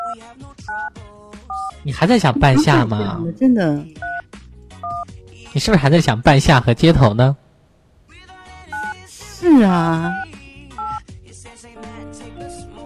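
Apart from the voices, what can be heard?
telephone keypad dialing tones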